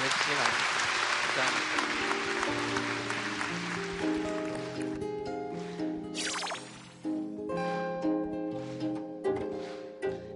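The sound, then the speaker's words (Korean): A crowd bursts into loud, dense applause for all the people who work with grease on their hands, filling the first half, then thins out as a melodic musical accompaniment rises and carries on alone. “세상 모두 어, 우리와 함께 기름때 묻히고 일하고 있는 사람들에게 네, 박수 한번”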